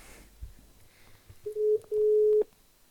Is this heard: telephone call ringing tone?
yes